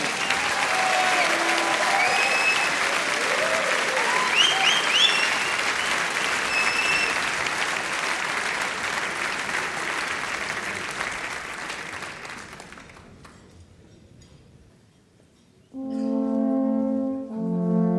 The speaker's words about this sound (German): Und jetzt geht's los, meine sehr verehrten Damen und Herren. Bitte begrüßen Sie mit einem kräftigen Applaus unseren salvator Maximilian Schaffroth.